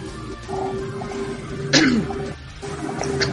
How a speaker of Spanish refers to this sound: Con ese tosido respondo ese comentario. No, sé Con esa tos nerviosa.